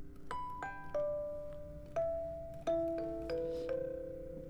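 A Mirror Box music box plays a slow, gentle melody of bright plucked metallic notes, each chiming clearly and ringing out before the next, with no voices.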